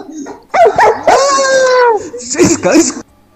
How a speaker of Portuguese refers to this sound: a cachorrada tá aqui na minha bota aqui, ó